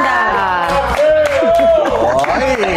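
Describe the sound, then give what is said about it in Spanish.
Studio staff of a morning TV show clap and cheer, scattered claps rising over a loud tangle of excited voices and whoops, with a steady low pulse of music underneath. “Que les están aplaudiendo tanto.”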